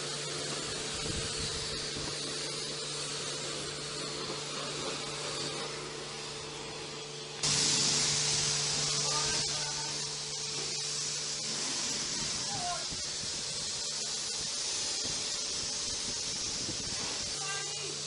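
A steady, broad hiss of water spraying onto a car runs throughout, with a steady low hum underneath; the spray grows louder and brighter around the midpoint and stays strong to the end.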